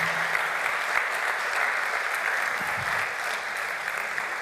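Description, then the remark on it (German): Sustained applause from an audience for the standing Dreamteam volunteers, a dense steady wash of many hands clapping at an even, fairly loud level, with no voices rising above it. “Hey, ihr kriegt einen dicken Applaus von mir. Bleibt bitte stehen, ja, einen dicken Applaus.”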